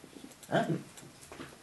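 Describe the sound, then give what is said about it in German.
A dog lets out a short, fairly loud noise, a single brief yelp-like burst, followed by quieter sounds and faint background murmur. “Der Hund hat irgendwas gemacht. Irgendwas ist passiert.”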